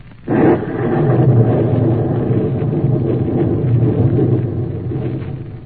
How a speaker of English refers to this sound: Listen to that rain on the roof.